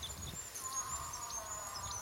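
A female elk's drawn-out, wavering moan rises and sags steadily over a low rumbling background. She is calling to attract a male during the mating season. The call is steady and sustained.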